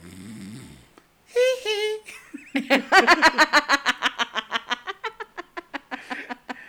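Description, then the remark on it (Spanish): A voice imitates snoring: a drawn-out, wavering vocal groan, then a long, rapid train of raspy, rhythmic puffs that gradually slows and softens. “Porque estaba roncando y le decía...”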